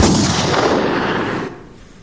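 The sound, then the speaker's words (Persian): A single loud revolver gunshot, fired at a girl, rings out, followed by a long, rumbling echo that slowly fades away over a couple of seconds. “بلافاصله هفتیرش را به سوی دختر گرفت و گلوله شلیک شد”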